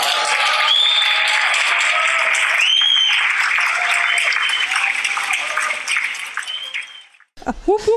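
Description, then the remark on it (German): An applause sound effect cut in to celebrate a first and a second place won in two award categories: dense, steady clapping and cheering that holds loud for about seven seconds, then cuts off abruptly, followed by a brief voice-like sound at the end. “Können wir ja, Beifall ja. reinschneiden?”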